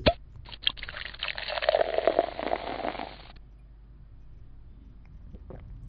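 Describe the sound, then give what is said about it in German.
A drink is poured steadily into a glass for about three seconds, a bright liquid splash with a rising pitch as it fills, then a quiet pause with faint clinks. “Im Grunde genommen ein Grund zu feiern und ähm, ja, Gläser aufzumachen.”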